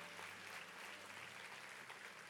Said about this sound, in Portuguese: Você pode aplaudir o amor dele, a graça dele.